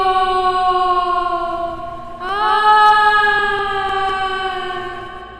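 A long, eerie wailing cry, a created representation of a legendary ghostly woman's cry "¡Ay mis hijos!", holds one steady, mournful pitch, then swells louder and slides upward midway, sustaining its haunting, siren-like tone to the end with no other voices.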